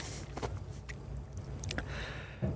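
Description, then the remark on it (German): Ice breaking off large ice floes: scattered sharp cracks and crackles over a steady low rumble, moderately loud, with no voices. “Hier, man hört ja immer, ich weiß nicht, ob man das gerade jetzt auch in der Aufnahme gehört hat, hier war gerade wieder so ein großes Rumsen. Hier bricht so ständig von großen Eisschollen Eis ab.”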